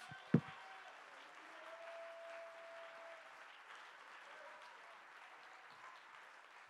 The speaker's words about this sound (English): Oh, I would that somebody would clap your hands and give him praise.